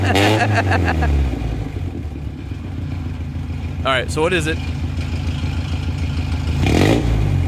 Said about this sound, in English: the glorious sound of a 1976 Datsun oh. 620 uh, from its L20B four cylinder with a Doug Thorley header and super trap muffler